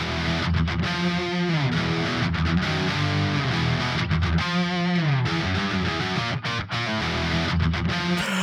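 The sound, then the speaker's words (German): Two Telecaster electric guitars play together, heard solo as the basis for a cross-reverb mixing trick, one with a gritty distorted tone, strumming chords and picking bending notes in a steady, upfront rhythm with no voices. “Als erstes hören wir mal kurz rein hier solo in unsere beiden Telecasters, die wir jetzt als Basis mal für den Trick nehmen.”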